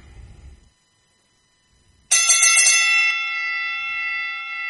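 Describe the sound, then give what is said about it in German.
A single bright bell strike rings out sharply after a short quiet pause, its metallic tone sustaining and slowly fading over the next few seconds, loud. “Dafür habe ich jetzt die Glocke geläutet.”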